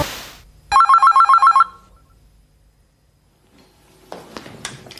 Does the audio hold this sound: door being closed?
no